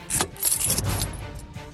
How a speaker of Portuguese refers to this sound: Estendendo o braço em um movimento preciso, ele desliga o carro e puxa a chave da ignição.